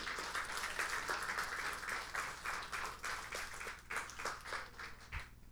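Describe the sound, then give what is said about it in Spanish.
A church audience applauds strongly for its young people, with dense, rapid clapping that holds for several seconds before thinning out, with no voices over it. “Démosle un fuerte aplauso, Señor, por nuestros jóvenes.”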